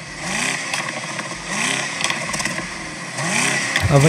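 An electric car's artificial engine sound revs up three times in a steady cycle, each rise climbing in pitch before dropping back, loud with a buzzy, clattering edge and no talking.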